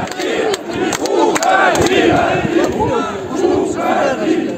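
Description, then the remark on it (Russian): A large crowd of workers at a factory shouts and jeers in the heat during a speech by Lukashenko, many overlapping voices forming a loud, continuous roar with rising and falling yells and no single clear speaker. “Можете еще покричать.”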